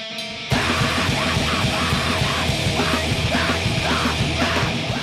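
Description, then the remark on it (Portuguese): Loud, dense band music with harsh screamed vocals over distorted guitars and pounding drums, a wall of sound kicking in abruptly after a brief quieter intro. “E agora, agora chegou a primeira banda com griteiro, né?”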